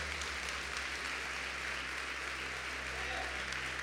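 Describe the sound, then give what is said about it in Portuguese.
A church audience applauds for Jesus steadily, a dense, even wash of clapping that holds at a constant loudness for the whole stretch, over a low hum, with faint voices mixed in. “Se é para Jesus, coloca um glória aí junto com esses aplausos.”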